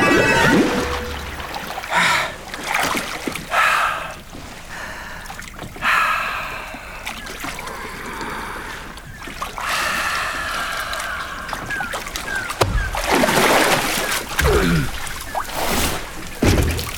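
A small boat moves through water at sea as someone sets out fishing, with irregular splashing and sloshing bursts rising and falling over steady watery noise, growing busier toward the end.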